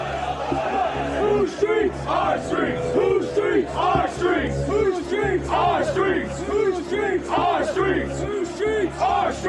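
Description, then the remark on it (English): A large crowd at a march chants loudly in unison, many voices repeating a short phrase in a steady, driving rhythm over a constant low rumble, with no break for the whole stretch. “Look at the crowd. Wow. There's a lot of them.”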